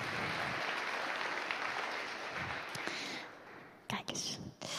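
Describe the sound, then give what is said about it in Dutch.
An audience claps steadily for a boy who is about to do a reading, in a dense, sustained wash of applause that thins out toward the end, breaking into a few scattered claps as it fades. “Je mag uh, hem alvast wel een applausje geven dat hij dit gaat doen.”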